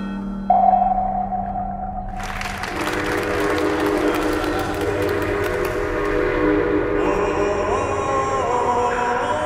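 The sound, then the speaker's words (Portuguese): A steam train whistle sounds a steady tone, then a loud, dense rush of engine noise and clatter builds and holds, as if the train is arriving; no voices. “o público dividiu-se quando viu a imagem de um comboio a avançar na sua direção.”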